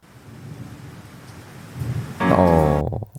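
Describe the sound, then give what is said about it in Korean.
Steady rain falls with a soft, even hiss and a low rumble beneath it, then a louder tonal swell briefly rises over the downpour before everything cuts off abruptly. “비가 오는데요?”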